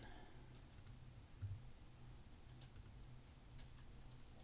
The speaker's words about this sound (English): I'm just recording because I could hear the mouse clicks